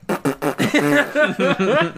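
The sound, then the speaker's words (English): A voice imitates fart noises as a producer tag in place of an air horn, in a rapid, rhythmic string of about eight short, buzzy, wobbling bursts, fairly loud, with no other sounds around them. “Fart money on the track. And then instead of the air horn, like, bum, bum, bum, bum, it's like,”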